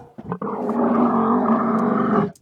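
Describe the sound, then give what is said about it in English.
A deep, pitched-down camel bellow rumbles continuously for about two seconds, loud, sounding like a roaring wild beast with a gravelly, growling texture and no talking. “Oh yeah, well, I mean, you can take a camel and really just kind of.”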